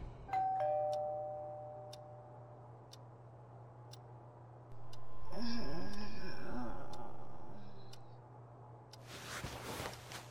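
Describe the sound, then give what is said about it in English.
A doorbell, rung by someone at 7:30 in the morning, chimes once at the start, its tone ringing out and fading over a couple of seconds while a clock ticks steadily; other indoor noises follow later. “it was absolutely another to have someone ringing her doorbell at 7:30 in the morning.”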